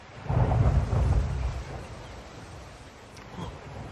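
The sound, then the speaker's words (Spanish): A deep rumble of thunder from a storm on a beach rolls in loudly over steady rain hiss, fading after a couple of seconds into a continuous wash of rainfall with a faint gust. “Vaya, parece que ahora tormenta.”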